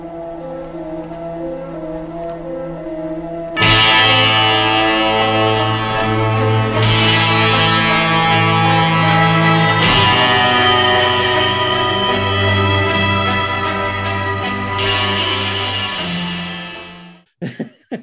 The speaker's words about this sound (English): Hunter and Kate Bane have an old-fashioned Western draw, with Kate Bane being the quickest, and Hunter is shot in the chest. Wild West music, and gunshot soundbite. Gunshot sound.